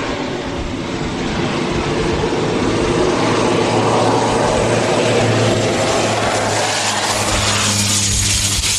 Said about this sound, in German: Und dann ist auch schon unsere Maschine da. Unsere kleine Cessna bringt uns jetzt von unserem Landing Strip Zement bis nach Maun